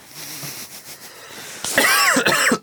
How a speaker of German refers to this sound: Ja, also kannst du den Huster herausschneiden, rausschneiden